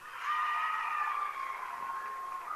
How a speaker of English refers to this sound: Michigan High fans coming alive on the far side. Good crowd on hand here tonight. Good to see the fans back in the stands here as we battle through this uh, COVID 19 stuff.